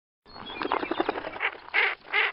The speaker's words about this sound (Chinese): 小鸟在高高的枝头放声歌唱，尽情跳跃。